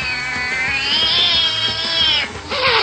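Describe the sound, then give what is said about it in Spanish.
A cat stuck up in a tree lets out a long, loud, drawn-out yowl, wavering in pitch for about two seconds, then breaks briefly before launching into another caterwaul. “Venga pa' acá, lindo gatito.”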